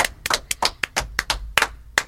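Brief, sparse applause: a handful of hands clapping unevenly, about a dozen sharp, crisp claps in two seconds, with no voices over it.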